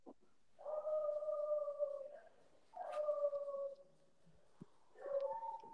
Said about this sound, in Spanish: no, estamos, estamos siguiendo como ladra el perro, espérate.